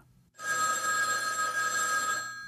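An old-style telephone bell rings loudly, a single sustained metallic trill lasting about two seconds after a brief quiet moment, with no voices; a phone call to Lola from Barry Shaw on December 3rd.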